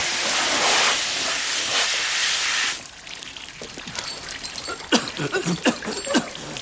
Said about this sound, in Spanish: Danny lo riega con una manguera.